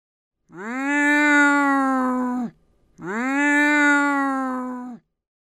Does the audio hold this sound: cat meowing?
yes